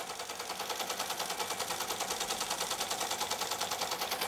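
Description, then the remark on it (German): A punched paper tape reader (scanner) runs with a fast, steady mechanical chatter as it reads a punched tape to produce a corrected tape, evenly pulsing clicks repeating many times per second in a bright, rattling texture. No one speaks. “Und diesen Lochstreifen, den kann ich wenn es ein Fehler passiert sein sollte, wieder korrigieren mit diesem Abtaster hier. Der liest diesen Lochstreifen und es entsteht der korrigierte Streifen.”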